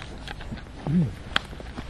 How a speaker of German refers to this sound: Dass dir das auch ja nicht entgeht. wie es klingt, wenn ich trinke.